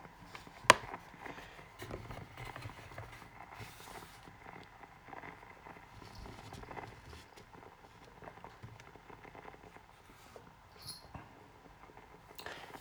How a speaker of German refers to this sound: So Leute, so klingt eine normale Standard-Kaffeemaschine.